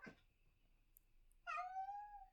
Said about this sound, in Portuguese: Desculpem é a minha gata decidiu interromper, vocês já sabem que não há nenhum episódio em que não haja uma interrupção, desta vez foi a minha gata.